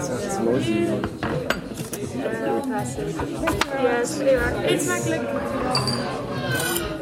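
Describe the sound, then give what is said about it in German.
Plates and cutlery clink and clatter in scattered bursts as food is served, with sharp metallic ticks over a busy, steady murmur, while several people talk throughout. “Essen ist da. Das Essen kommt.”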